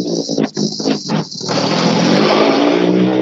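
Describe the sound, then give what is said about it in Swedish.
A rally car, start number one, revs hard in several sharp, choppy bursts, then settles into a loud, sustained roar as it pulls away from the start. “nu rullar start nummer ett ut. Är det inte skönt att få höra det här ljudet igen?”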